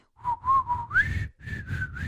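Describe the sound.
A person whistles a short, eerie melody, a recurring whistled piece from a horror audio drama, with sustained notes that slide upward midway before settling into a higher repeated pitch, no talking.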